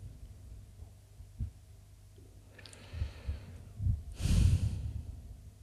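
Heavy breathing: a few low, huffing breaths build into a loud, rough snorting exhale near the end, with no talking.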